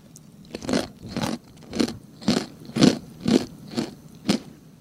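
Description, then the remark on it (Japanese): Crunching of a crisp, standard chicken-flavored snack of small fine pieces being chewed, about eight sharp, crackly bites in a steady rhythm, fairly loud and with no talking. “これみんな食べるとき、上向いて食べると思います。こぼれるから。でね、味は、もう言っちゃいましょう。これスタンダード、チキン味です。”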